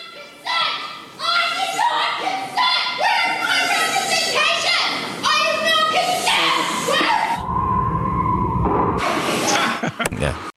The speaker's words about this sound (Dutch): Eventjes over dat gegil tot in de Senaat.